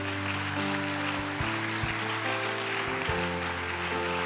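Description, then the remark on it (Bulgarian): A crowd applauds steadily, a dense wash of clapping that holds at an even level throughout, while sustained keyboard chords hum underneath and shift pitch a few times. “О, ако му ръкопляскаш, ръкопляскай като че вярваш.”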